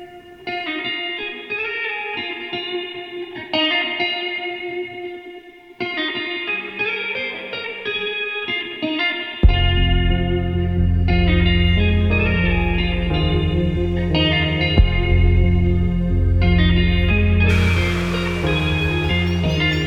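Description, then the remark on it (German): Band music starts with sparse, layered melodic tones, then a heavy bass and steady beat kick in partway through, turning loud and full, with a hissing swell rising near the end. “Jetzt geht es zuerst mal ein bisschen musikalisch weiter”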